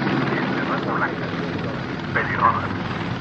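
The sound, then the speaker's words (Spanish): A police helicopter roars overhead above the smoking wreckage of a truck in a steady, dense whirring wash of noise, with faint voices briefly surfacing beneath the engine din. “Mientras, un helicóptero de la policía sobrevuela los restos humeantes del camión.”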